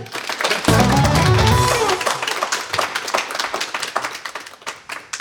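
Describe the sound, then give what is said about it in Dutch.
A crowd applauds with dense, rapid clapping that swells loudly at first, then thins into scattered claps and fades over a few seconds, with a brief low rumble of voices early on. “Maar geef me alsjeblieft nog een heel groot applaus.”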